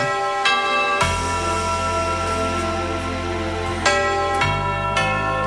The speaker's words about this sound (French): C'est ensuite une série de jingles qui reste en tête pour, euh, pour les auditeurs